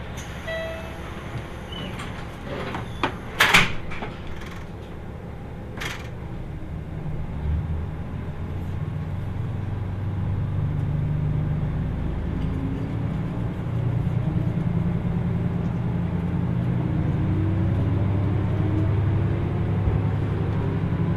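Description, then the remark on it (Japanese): A couple of sharp clunks as train doors shut, then a low rumble swells while the motor's whine climbs steadily in pitch as the train pulls away and gathers speed; the train's next stop is Miyaji Station. “発車します。ドアが閉まります。ご注意ください。”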